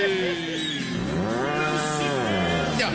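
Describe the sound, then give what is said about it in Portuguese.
A single long, loud moo from an old ox, its deep bellowing pitch swelling up and then sliding back down across several seconds, with no talking over it. “Mostra pra lá, boi velho nojento.”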